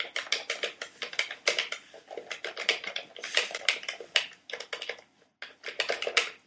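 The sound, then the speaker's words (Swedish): Rapid, irregular plastic clicking from a NES Advantage arcade stick for the NES, small but heavy and solid, dozens of sharp, bright clicks in dense bursts with a brief pause near the end. Fairly loud, with no voices. “Alltså jag älskar ljudet alltså.”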